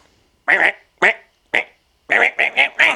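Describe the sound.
A person imitates bird squawks with seven harsh, nasal calls, spaced out at first and then coming in a quick burst of four, loud.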